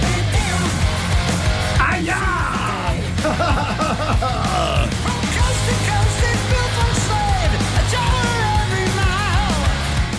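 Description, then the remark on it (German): Loud, dense heavy metal, the title track of a band's new album, plays continuously, with distorted guitars, pounding drums and a forceful, shouted male vocal line riding on top throughout. “sogar … haben was Neues. Da hören wir gleich mal in den Titeltrack rein.”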